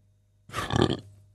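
A single short, guttural burp lasting about half a second, moderately loud, rising from near silence and cutting off abruptly, with no talking around it.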